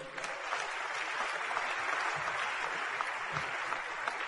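Steady applause from an audience fills the whole stretch, a dense wash of many hands clapping at once, sustained and even without any voices standing out.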